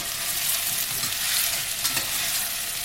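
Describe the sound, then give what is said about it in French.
Potatoes are added to a hot pan with carrots and sizzle loudly and steadily, a dense hiss of frying with faint scraping and stirring underneath, and a brief crackling swell near the end. No one speaks. “On met nos pommes de terre.”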